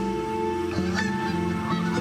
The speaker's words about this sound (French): Et moi, je l'ai vue, comme je vous parle, l'oie. je peux vous dire qu'elle était impressionnante avec ses ailes déployées et ses plumes blanches.